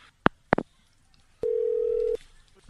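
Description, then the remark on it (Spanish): Two sharp clicks of a phone hanging up, then a steady, unbroken telephone dial tone hums for under a second, clear, with no one speaking. “¿Y por qué tú me cierras el teléfono, mi pana?”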